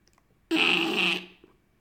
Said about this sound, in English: the sound of a squirrel. Squirrels eat peanuts.